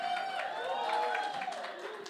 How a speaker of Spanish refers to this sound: Un aplauso